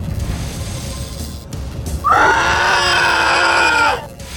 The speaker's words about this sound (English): The rock priest emits a horrifying scream as before your eyes, a cavalcade, a fucking parade of astral forms begin to be dragged out of the anchorite like goo from a cyst.